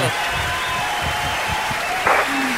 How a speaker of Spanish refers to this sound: en eso te aplaudo, weón. Qué bonito aplauso.